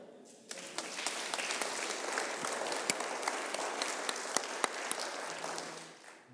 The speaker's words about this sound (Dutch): En ook voor deze ideeën was het applaus weer gemeend, hartelijk en hield eigenlijk niet op.